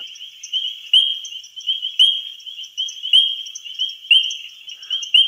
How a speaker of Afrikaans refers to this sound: So klink hierdie paddaatjie se roep.